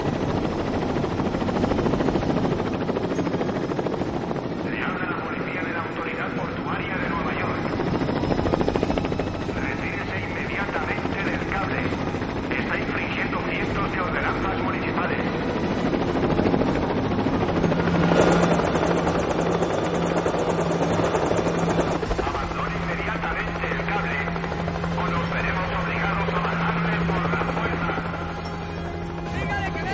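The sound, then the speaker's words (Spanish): A helicopter passes overhead, flying over the towers, its rotor throbbing in a steady, loud drone that fills the whole stretch, with a low engine hum underneath and a brief high whine partway through. “Un helicóptero sobrevuela las torres.”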